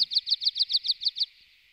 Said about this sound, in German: Also bei mir in den Alpen trällert ja gerne der Bergpieper munter vor sich hin, ja.